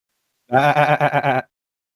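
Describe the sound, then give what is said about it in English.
A goat bleats once, a single wavering, nasal cry lasting about a second with a quavering, pulsing tremble, fairly loud and alone, with silence before and after. “That wasn't a Anyways, sheep. That was a goat.”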